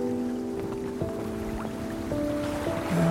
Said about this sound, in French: entend juste le zodiaque que le catamaran traîne à l'arrière. D'ailleurs, faut faire attention parce qu'ils ne viennent pas cogner le bateau.